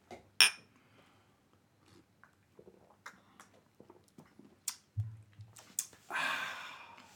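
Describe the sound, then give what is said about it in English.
Two glasses clink together in a toast, a single bright chime with a short ringing tone, followed by softer scattered clicks and handling sounds and a brief breathy rush near the end. “Let's clink.”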